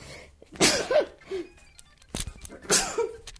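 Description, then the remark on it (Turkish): Two sharp, forceful morning sneezes, each with a quick breathy intake before it, separated by a short pause and a faint click. “çok pardon sabah hapşırıkları bunlar.”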